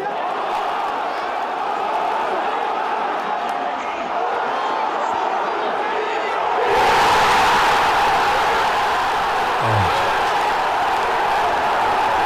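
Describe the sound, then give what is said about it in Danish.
A large crowd at Federation Square in Melbourne, Australia murmurs and buzzes steadily, then abruptly bursts into loud, euphoric cheering after the 1-0 goal in a match against Denmark. The roar stays at full volume to the end. “Der er øh, fuldstændig øh, euforisk jubel.”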